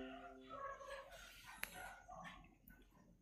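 Several dogs bark and yelp far off, faint and overlapping, with a drawn-out whining note at the start and a sharp click partway through.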